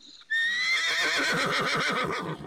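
A stallion lets out one loud whinny lasting about two seconds, a high shrill call that wavers rapidly and then drops off at the end, with no talking.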